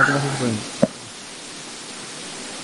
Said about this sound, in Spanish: Pero él ya está apagado y se escucha aún. Ahí se escucha estática, por ejemplo.